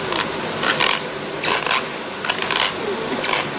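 Someone grinding their teeth in sleep at 3 a.m.: about five short, harsh, gritty rasps in an uneven rhythm, high and crackly, over a steady low hiss with no talking.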